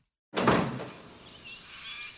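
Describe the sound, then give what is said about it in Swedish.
A heavy door of the Biosphere 2 facility swings shut behind eight participants with one solid thud, its boom fading over half a second into a faint, lingering high hiss. No one speaks. “När dörren stängts bakom de åtta deltagarna är det dags för dem att starta sina nya liv i anläggningen.”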